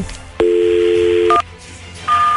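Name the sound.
telephone number being dialed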